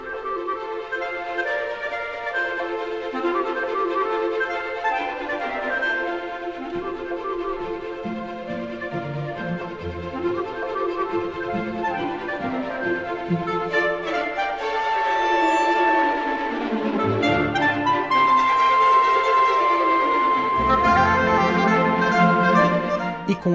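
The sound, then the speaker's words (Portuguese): The opening of the second movement of Felix Mendelssohn's Scottish Symphony: a lively orchestral passage with a clarinet melody over energetic strings, building louder in the second half with sustained high notes, no voices throughout. “Perceberemos o clarinete acompanhado pelas cordas em um caráter vivo e enérgico.”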